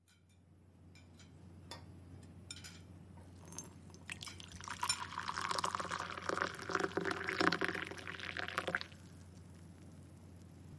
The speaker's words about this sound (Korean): 여자는 해물을 등지고 앉아 청귤청에 따스한 물을 붓는 중이다.